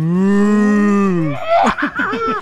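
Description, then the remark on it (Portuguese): A human voice imitates a cow, holding a long, loud, low moo that sags slightly in pitch, then breaks into a quick run of shorter, wavering moo-like bursts. “Vamos lá, todo mundo, todo mundo Caraca, fazendo seu, sua versão véi. de mu.”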